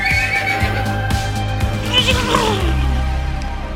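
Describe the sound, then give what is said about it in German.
A horse whinnies loudly, a shrill, quavering neigh that slides downward in pitch, set against a steady low rumble. “Wir können nicht schon wieder mit dem scheiß Pferd anfangen.”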